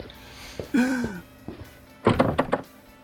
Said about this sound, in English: And here's another door locked behind us. Definitely feeling a pattern here, guys.